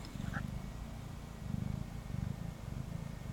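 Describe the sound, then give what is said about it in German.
A new tomcat lying on a person's lap purrs steadily, a low rumbling drone pulsing in a regular rhythm of soft surges, with no voices present. “Er schnurrt. Er schnurrt einfach so herrlich.”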